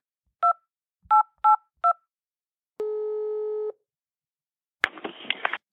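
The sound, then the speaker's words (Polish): Four quick two-tone telephone dialing beeps of a call to Warsaw in an uneven rhythm, followed by a steady electronic tone lasting about a second, then a sharp click and a short burst of crackly line noise. “Spróbujemy w związku z tym zadzwonić do Warszawy.”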